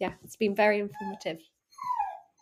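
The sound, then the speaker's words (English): A man speaks briefly, then after a short pause a dog in the background lets out a single high, drawn-out whining yelp that slides downward in pitch. “and that's my dog in the background.”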